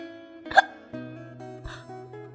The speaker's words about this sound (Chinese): 哦， 这下子老狼可发愁了，他也不知道怎么能治好打嗝。